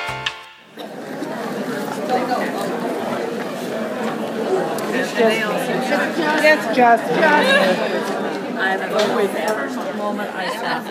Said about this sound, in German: Was ihr da gerade hört, das sind ähm, die Geräusche, die ein summender und brummender Madrona Marketplace macht. Von ähm, überwiegend Frauen, aber auch einigen Männern, die ganz begeistert durch eine mittelgroße Konferenzhalle laufen